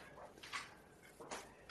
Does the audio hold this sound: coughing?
no